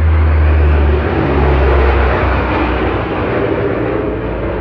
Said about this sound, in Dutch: dan komt er een vliegtuig over. Ik wacht even.